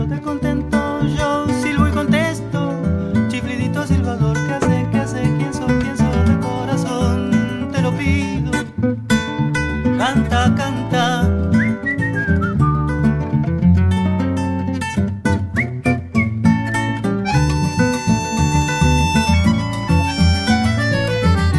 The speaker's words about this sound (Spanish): Hay un montón de instrumentos que vienen como un sonido muy orgánico, muy local. Esta es una milonga un poco también. Hay percusión, hay. Bueno, unas texturas muy lindas que no están en muchas otras músicas